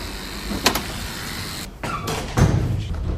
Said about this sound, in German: Wir klingeln und zu unserer Überraschung wird uns geöffnet.